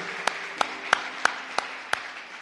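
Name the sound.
audience applause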